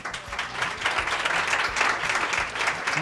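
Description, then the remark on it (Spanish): Steady applause from a group for two student winners of a micro-story contest about the number pi fills the whole stretch, a dense wash of many hands clapping at once, moderately loud, with no one speaking over it. “lo primero, hombre, fuerte aplauso para ellas, venga, vamos”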